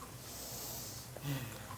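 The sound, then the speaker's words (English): A single short, throaty snoring snort from a person napping rises out of steady breathy noise near the end, fairly loud, with no talking. “Was I snoring again?”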